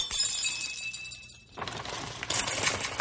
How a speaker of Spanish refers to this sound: Ahora, romperé la ventana.